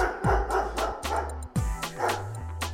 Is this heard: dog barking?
yes